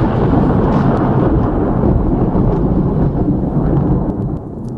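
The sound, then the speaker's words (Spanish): A deep, sustained rumble of thunder rolls loudly for several seconds, heavy in the low end, then begins to fade slightly at the end. No voices are heard. “Un terremoto, hay un trueno.”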